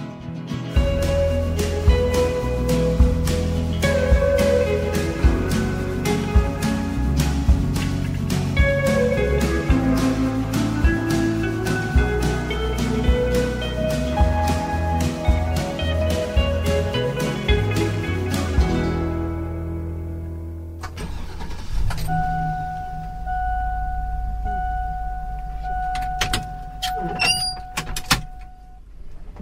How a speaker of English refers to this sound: That's a sound you might recognize. It's a school bus starting up and opening the door for riders. Lots of kids, maybe you, get to school by riding the bus.